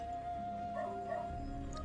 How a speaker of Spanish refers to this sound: Bueno, gente, si escuchan un perrito ladrando, primero que nada, o último, no sé. Se lo vamos a sacrificar al perrito. Un perro que está tratando, es un perro que está tratando de avisarle a un vecino que probablemente se le quiere meter a robar,